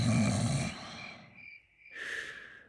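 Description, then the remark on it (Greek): A man lying in bed snores in deep sleep: one rough, rumbling snort on the inhale, a thin whistling breath, then a second raspy snore, moderately loud with no talking. “Ύστερα ξάπλωσε στο κρεβάτι του και έπειτα από λίγο άρχισε να ροχαλίζει σαν να βρισκόταν στον πιο βαθύ ύπνο.”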